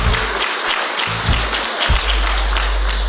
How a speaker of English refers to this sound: And you should give yourselves an applause.